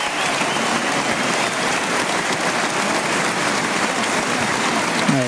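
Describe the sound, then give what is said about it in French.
A large crowd in a bullring applauds steadily as the matador Julián López Escobar salutes in homage, dense clapping without pause, with a faint voice or two rising near the end. “on le voit très touché, très, ouais, très touché par l'accueil du public, dans une arène où il a souvent triomphé.”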